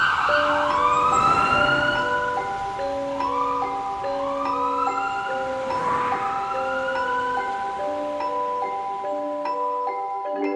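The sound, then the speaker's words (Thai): An ambulance passing by sounds its siren, wailing loudly and steadily, its rising sweeps repeating over a two-tone horn pattern, with no voices, easing off only slightly toward the end. “นั่นรถพยาบาลที่เจ้าเรียกมาหรอไวจริง เปล่าจ้ะข้ายังหาเบอร์อยู่เลยถ้าทางรถพยาบาลจะผ่านมาพอดีน่ะ”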